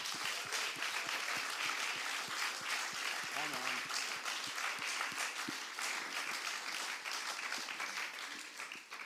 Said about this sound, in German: Und hey, lass uns diesem Gott einen Applaus geben, weil ohne ihn wären wir nicht hier. Come on.